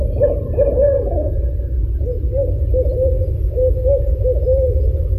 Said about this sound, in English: and there are two of them. They're communicating from a distance. It sounds like an owl. Yeah, it sounds like two owls, obviously, because so so t- owls are are at night, right?